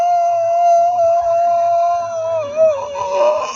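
A dog howls one long, sustained note that wavers slightly in pitch near the end, loud and close, as if singing along to a tune; no talking.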